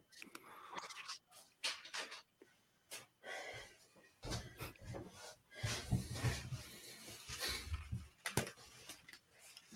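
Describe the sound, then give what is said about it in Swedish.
A dog comes in after stealing a stone from a collection, making irregular rattling and clattering noises in quick bursts that grow busier toward the end, with some snuffling breaths between them and no talking. “Nu, nu kommer han här rasslandes.”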